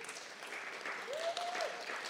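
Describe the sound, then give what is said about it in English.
A small audience gives a light, polite golf clap, soft scattered claps, with a brief faint tone rising through the middle. “I love the golf clap.”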